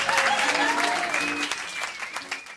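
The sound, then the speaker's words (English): Audience applause at the Thrilling Adventure and Supernatural Suspense Hour second anniversary show, a steady, dense clatter of many hands clapping at once, fairly loud, with a few whistles or cheers rising over it before it starts to thin. “Give us a round of applause.”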